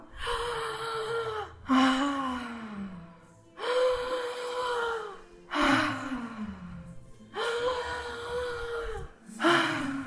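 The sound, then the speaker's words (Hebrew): A voice imitates deep, desperate gasping breaths, like someone surfacing after being underwater, as part of a breathing exercise of seven 'starvation' breaths into the lower belly: about five or six loud, heaving inhalations in a steady rhythm, each with a strained voiced edge. “אנחנו נושמים שבע נשימות לבטן התחתונה כאילו אנחנו נמצאים באיזשהו מרחב, כאילו יצאנו ממעמקי הים אחרי שלא נשמנו איזה חמש דקות, זה נשימות סטרוויישן אה, כאלה,”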